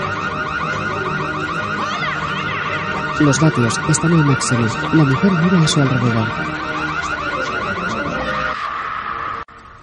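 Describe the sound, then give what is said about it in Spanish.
A smart-home security alarm blares nonstop with loud, shrill, repeating electronic tones while a woman enters an incorrect code at the alarm panel. A voice speaks over it partway through, and the alarm cuts off abruptly just before the end. “La mujer se acerca a la pantalla de la alarma. Pone el código. No es correcto.”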